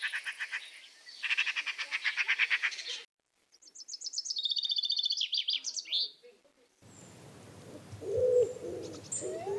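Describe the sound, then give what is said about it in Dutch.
A low, hollow owl hoot rises from a noisy outdoor recording, preceded by a rapid pulsing trill and a bright run of high whistled birdsong, with no voices. “Ik hoor hier een uil,”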